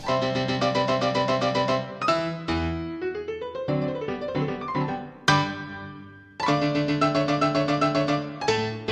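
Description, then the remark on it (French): A lively classical piece played on piano, with a solo played on a plastic toy chicken, brisk and loud, with dense rapid chords and runs filling the whole stretch, briefly thinning out midway before the full texture returns. “Oui, c'est le barbier de Séville de Rossini au piano”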